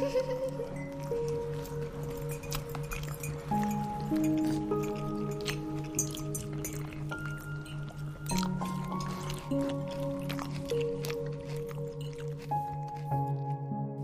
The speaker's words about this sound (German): Doch bald hörst du nur noch einvernehmliches Schmatzen. Mms. Und hin und wieder ein leises Kichern.